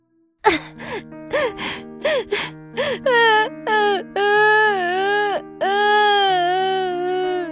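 A child who has just fallen down pants in several quick, breathy gasps, then breaks into loud, sustained wailing cries with a high, wavering pitch, each sob rising and falling.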